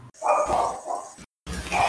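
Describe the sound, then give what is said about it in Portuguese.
A person mimics a dog barking with a few loud bark-like yelps in quick bursts, separated by a brief pause. “ele entra na igreja, ele é o cachorro que entra na igreja.”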